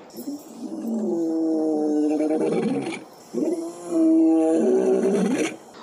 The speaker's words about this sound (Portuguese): Hum, onomatopeias é uma figura de linguagem que consiste no uso de palavras que vão representar sons e ruídos, como o rosnar de um leão,